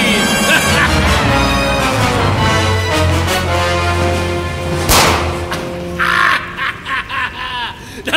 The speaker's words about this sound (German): das war alles. Das soll es gewesen sein. Ein einfacher Schuss aus einer Pistole. Mehr hat dieser Schnüffler nicht zu bieten.